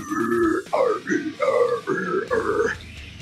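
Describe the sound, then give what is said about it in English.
A man growls a series of deep, rough guttural bursts in quick succession, mimicking death metal vocals, five or six loud grunting syllables with brief gaps between them. “sure it's a fucking blazing album, but when you're listening to the vocals, all you hear is like,”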